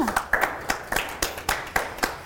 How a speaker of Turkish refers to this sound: Çok güzel cevaplar verdiniz. Alkışlar.